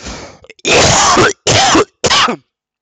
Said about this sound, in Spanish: Un podcast sin tos no es podcast.